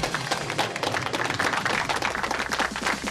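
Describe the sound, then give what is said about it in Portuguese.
An audience of a quiz broadcast applauds the contestants steadily, a dense crackle of many hands clapping at once, loud and sustained for the whole stretch with no voices above it. “E então vamos pedir uma salva de palmas para os nossos concorrentes e até para a semana!”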